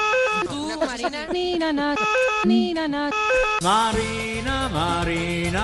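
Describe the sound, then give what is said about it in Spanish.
A person vocally imitates a police siren, voice sliding up and down in wailing sweeps, loud, with no real siren present and no speech over it. “Hombre, todo el mundo tiene un amigo que imita a la sirena.”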